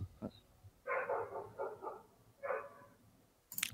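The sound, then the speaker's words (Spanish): Distant wolves calling in a few short, wavering howls and yelps, one after another, fairly clear against a quiet background. “Se escuchan algunos lobos a lo lejos.”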